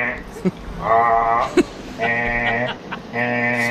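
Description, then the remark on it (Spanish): A voice, a listener from Alicante, imitates a door intercom release buzzer with three sustained, nasal buzzing drones, each about a second long with rich harmonics, separated by short gaps and brief clicks. “propone una reinterpretación del coro basada en el portero automático. Este sonido que hacen los sistemas de apertura en los telefonillos.”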